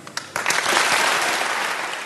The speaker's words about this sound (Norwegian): Ja, det var jo full jubel, men hvorfor i all verden var det folk som jublet? Ja, det er fordi dette er bare en manglende puslespillbrikke i et puslespill som vi har brukt veldig, veldig mange år på å bygge opp